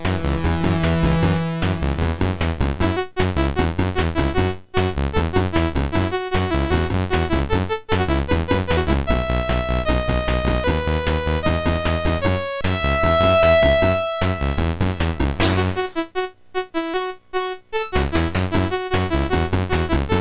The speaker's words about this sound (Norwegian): I mellomtida så mimrer vi California Games med menymusikken.